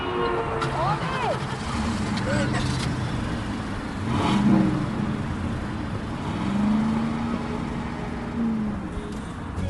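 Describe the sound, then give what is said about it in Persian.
A car engine revs and pulls away amid steady street traffic noise, its pitch rising and falling, with faint voices in the background. “حالم خوب نیست من با اون ماشین میرم”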